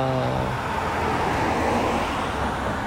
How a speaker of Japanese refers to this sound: ああ車が